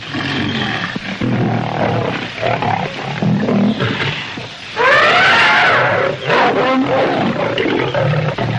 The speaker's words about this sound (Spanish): Otro león merodea por la zona.